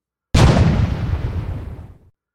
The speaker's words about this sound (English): I don't know how many cannons had fired, but it was a lot. Thirty, forty, fifty, I don't know. But the concussion felt like a punch in the head. The noise left me half deaf, ears ringing.